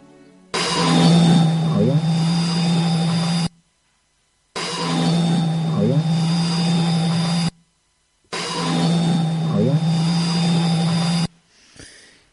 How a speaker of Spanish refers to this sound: Y esa voz que se cuela entre el ruido blanco, que se oye perfectamente en la grabación, decía, habla o algo así, habla, algo así.